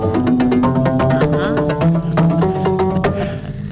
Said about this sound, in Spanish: Hoy hemos llevado, digamos, tenemos aquí una goma caja, que es un instrumento hecho con una caja de poliestileno y gomas, que, suena más o menos así.